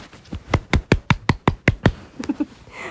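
Hand clapping: about nine sharp, evenly spaced claps in quick succession, fairly loud, followed by a few softer, fainter claps trailing off, with no talking.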